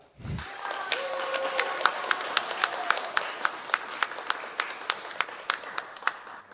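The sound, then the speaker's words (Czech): An audience claps together in a steady, even rhythm for several seconds, the sharp claps evenly spaced and moderately loud over a faint background murmur of voices, applauding an absent child from a religion class at a children's performance. “A já můžeme taky zatleskat, i když tu není.”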